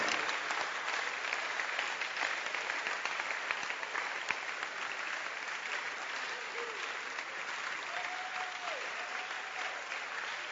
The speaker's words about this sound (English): Clap your hands. Clap. Clap it.